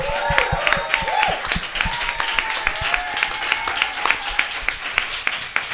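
Sustained applause from a studio audience welcoming actor and presenter Juan Rabonet, dense overlapping claps at a steady, fairly loud level, with faint voices and a few whoops mixed in.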